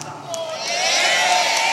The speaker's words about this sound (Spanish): fuerte ese aplauso